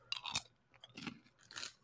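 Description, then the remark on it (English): Crunching on Buc-ee's sea salt caramel Beaver Nuggets: three bursts of crisp, crackly chewing spaced about half a second apart, bright and brittle, with no talking. “The sea salt caramel beaver nuggets make a perfect snack.”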